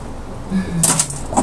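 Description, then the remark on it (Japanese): A few quick, sharp clicks of the claws of a pet named Ame tapping against a screen as it plays at it, irregular, with a soft voice murmuring underneath. “雨が出した聞こえるかなカツカツ言ってるのは雨が画面に向かってじゃれてる証拠です かわいいな”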